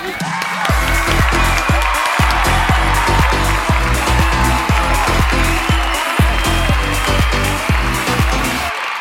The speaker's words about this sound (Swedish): Ge en varm applåd till dagens gäst Jessica Frey!